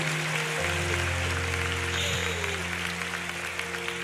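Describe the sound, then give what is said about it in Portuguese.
A crowd applauds steadily, a dense wash of clapping over sustained low musical tones, with no one speaking. “Você pode aplaudir o nome de Jesus, porque isso é a multiplicação dos brinquedos.”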